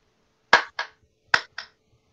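Four sharp hand claps in two quick pairs, fairly loud, a brief bit of sparse applause with a quiet pause between the pairs and no talking.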